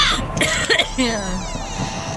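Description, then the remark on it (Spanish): A few harsh coughs come in quick bursts near the start, followed by a raspy, throaty exhale that trails off into quiet room tone. “A ver, claro, ya se me estaba pasando por esta tos que traigo, caray.”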